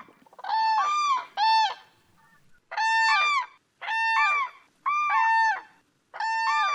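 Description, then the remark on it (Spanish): Common cranes trumpet in a huge wintering flock of tens of thousands, birds arrived from northern Europe, many overlapping bugling calls arriving in loud bursts of about a second each, separated by short gaps, with no talking. “Lo hacen por decenas de miles en medio de un gran estruendo”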